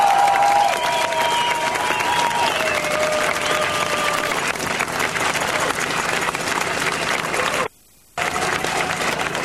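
An audience applauds steadily, a dense wash of many hands clapping at an even loudness, with a few faint whistles early on and a brief cut to silence near the end.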